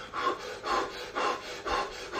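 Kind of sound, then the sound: human body sound, rapid deep breathing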